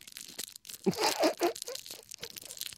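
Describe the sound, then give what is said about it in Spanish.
A candy wrapper being unwrapped during the quietest, pianissimo moment of a music performance, with crisp crinkling and crackling in a few irregular bursts, loudest in the middle, then fainter rustles trailing off. No one speaks. “Sí, y, eso en, momentos en el que la dinámica eh, musical es lo más pianísimo posible para abrir el caramelo.”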